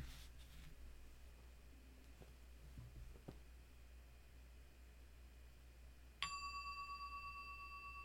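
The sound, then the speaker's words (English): During a guided meditation session, a single strike of a small meditation bell rings out clearly after a few seconds of quiet shuffling, its bright, pure tone sustaining and slowly fading with a gentle shimmer. “Get our little bell here.”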